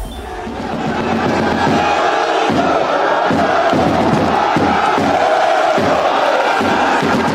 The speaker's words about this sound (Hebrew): ליונל מסי מנופף להמוני אוהדים מחלון שדה התעופה עם טישרט לבנה פשוטה שעליה כתוב איסי סה פארי.